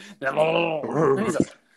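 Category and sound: vocal imitation, person imitating a dog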